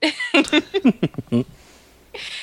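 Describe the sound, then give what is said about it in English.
A voice imitates a fart: a quick string of buzzing, sputtering vocal bursts, fairly loud, bookended by breathy hissing. “that wasn't even a real fart, though.”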